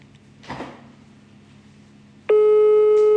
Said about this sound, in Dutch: We gaan eens horen, hè, of dat ze thuis is. Het belt, dat is al goed.